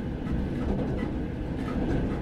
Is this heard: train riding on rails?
yes